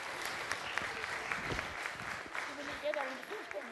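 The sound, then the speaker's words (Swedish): Steady applause from an audience for the sheep fills the scene, a dense wash of clapping hands that holds for several seconds, with faint voices murmuring underneath. “En applåd för, för fåren.”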